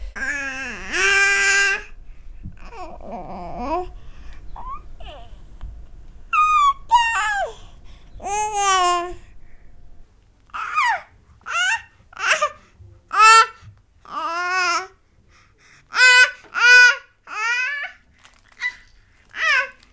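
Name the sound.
baby babbling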